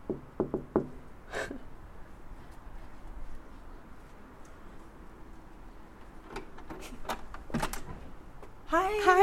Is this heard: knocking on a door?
yes